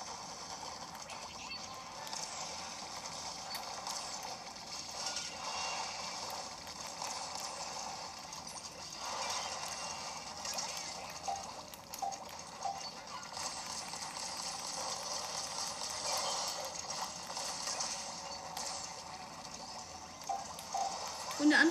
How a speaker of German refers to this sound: Und die Welle geht los. Es ist Flut.